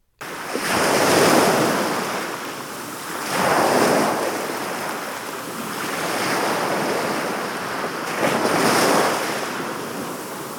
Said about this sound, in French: Est-ce le bruit des vagues ou celui du vent On entend le bruit des vagues.